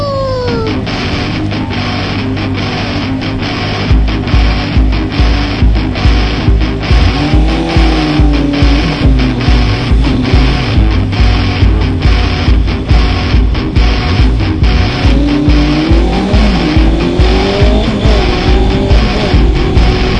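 A loud motorcycle engine revs hard and accelerates, its pitch rising and falling in waves over a steady, pulsing throb that runs for about twenty seconds, without any talking.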